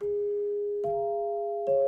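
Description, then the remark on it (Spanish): Three clear notes struck one after another on a set of Dinner Chimes at an even pace, each ringing on and overlapping the last to form a short bright melody, alone. “Ahí están. Las Dinner Chimes. Digan, era la marca que los, que los fabricaba.”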